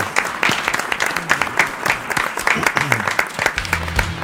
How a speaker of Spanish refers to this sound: Un aplauso gigante para eh,